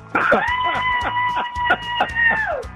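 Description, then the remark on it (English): A radio caller from Fallbrook who is heading to Stagecoach gives a loud, high-pitched sustained scream that holds steady for over two seconds before trailing off, with rhythmic pulsing underneath and brief bursts of other sound cutting through. “your scream was very high pitched.”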